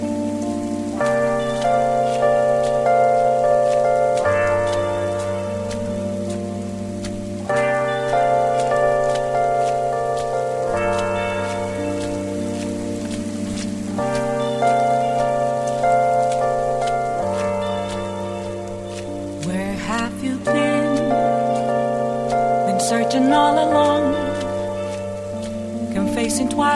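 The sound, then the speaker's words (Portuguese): A calm, steady piece of music, the calm rain version of a song, with sustained chords shifting every few seconds, layered over a constant soft patter of rain that runs throughout at an even volume. “Beneath of the Mask, a versão de chuva, inclusive.”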